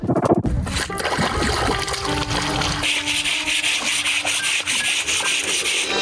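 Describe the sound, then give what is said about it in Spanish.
Women kneeling to wash clothes by hand, scrubbing them against a stone in the low-running Río Chico near the Cutzamala dam system, as they have no water at home: steady splashing and wet rubbing over a continuous rush of flowing water, with no one speaking. “Con una piedra como lavadero, de rodillas, y aprovechando la poca agua que aún le queda al río Chico, es como ellas deben lavar su ropa.”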